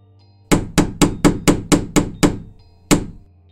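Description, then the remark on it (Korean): Loud metallic bangs on an iron door: eight rapid, evenly spaced heavy blows, then a short pause and one final hit, each ringing briefly. No voices. “벽에 기대어 절고 있던 나는 철문을 두드리는 소리에 눈을 떴다.”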